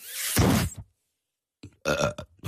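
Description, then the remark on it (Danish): A voice imitates a man's loud sneeze while he is driving a car: a rough, breathy burst, a pause of about a second, then a second strained, voiced burst that ends abruptly. “Og lige pludselig, så skal han altså nyse.”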